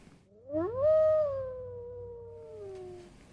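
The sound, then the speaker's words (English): A single wolf howl swells upward, then holds and slowly sinks in pitch for about three seconds, clear over a low background rumble, with no talking. “you, you, shouldn't let wolves raise your children.”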